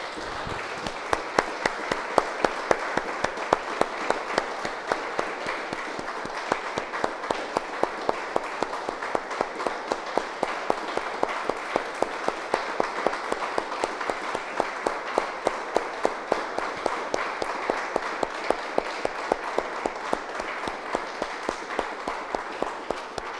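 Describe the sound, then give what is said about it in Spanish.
Sustained applause from an audience, a dense, steady patter of many hands clapping for over twenty seconds, with sharper rhythmic claps standing out in a regular beat near the end. “Vamos un aplauso, hermano.”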